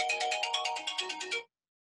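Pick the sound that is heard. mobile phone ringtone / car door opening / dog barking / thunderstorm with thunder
mobile phone ringtone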